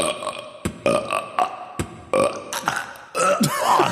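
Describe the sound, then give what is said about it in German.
A string of short, throaty burps in quick succession, each at a slightly different pitch as someone tries to burp a melody, fairly loud with no talking. “Ich krieg so ein, zwei Rübser raus, aber ich krieg da keine Melodie.”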